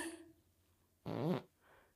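A single loud fart, made with the microphone deliberately held against the speaker's backside, blasts right into the microphone for about half a second, raspy and buzzing, followed by a fainter trailing puff; no one speaks.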